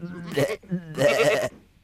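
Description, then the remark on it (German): A person imitates a goat with two drawn-out, quavering bleats, fairly loud, separated by a short gap. “Abends fragte er Ziege, bist du satt? Sie antwortete Ich bin so satt, ich mag kein Blatt.”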